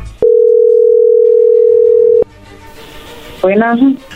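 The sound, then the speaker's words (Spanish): A steady, single-pitched telephone tone hums loudly for about two seconds as a phone number is being dialed, then cuts off into faint line hiss before a brief voice speaks. “no haga ruido, ahí se está marcando.”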